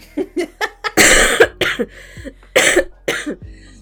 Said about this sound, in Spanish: a lo mejor ni siquiera estoy enferma, es una enfermedad psicológica de mi cerebro, como un embarazo psicológico. Pero eh, tengo tos psicológica.